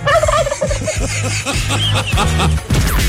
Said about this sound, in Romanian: Totuși, curcanii, cu strigătul lor, nu-i așa, uh, uh, ne arată că în viață trebuie să te descurci.